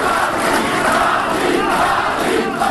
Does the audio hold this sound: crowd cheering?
yes